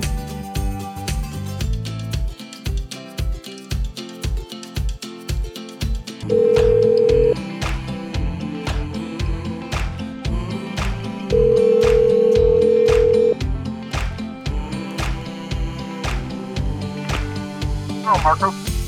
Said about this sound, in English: I'm going to mute my mic and give Ken a call